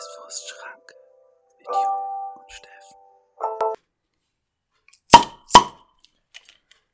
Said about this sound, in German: Ihr hört den Doppelplöpper, den klassischen.